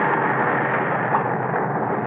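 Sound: thunder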